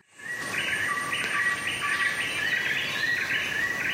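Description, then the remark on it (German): Dense jungle ambience: a steady wash of insect buzzing and trilling with repeated bird chirps and calls layered over it, continuous and fairly loud, with no voices. “Ich muss dann immer so grinsen und ähm, mache die Augen zu und fühle mich ehrlich gesagt sofort wieder im Dschungel.”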